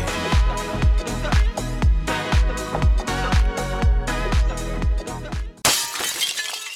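A steady, pulsing music beat plays for several seconds, then cuts off as a loud crash of shattering glass bursts in, its bright fragments tinkling briefly at the end, in a radio advertisement for the JBL Vidriería glass shop in Juan Lacase.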